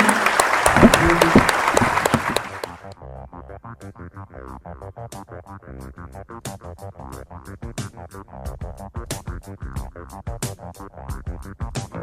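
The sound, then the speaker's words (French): A burst of loud audience applause for the speakers fills the first couple of seconds, then breaks off as a steady, rhythmic musical jingle takes over for the remainder. “Je pense qu'on peut applaudir nos intervenants.”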